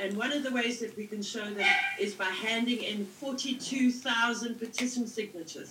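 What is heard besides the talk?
dog barking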